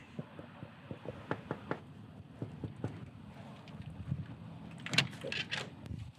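A series of sharp knocks on a door with frosted glass, several quick raps in a loose rhythm, then a few scattered thuds and a rattling clatter against a steady outdoor, windy background.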